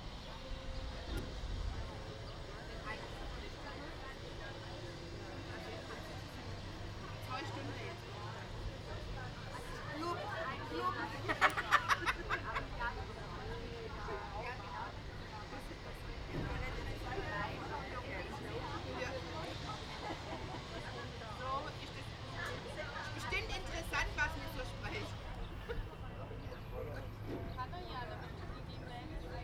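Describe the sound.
A passenger boat docks nearby: a steady low engine rumble churns for the whole stretch, with water wash and a few clunks midway, and faint voices murmur in the background.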